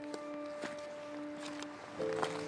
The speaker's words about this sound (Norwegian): Nå hører dere faktisk lyden av skritt som fører inn i selve Isdalen i Bergen.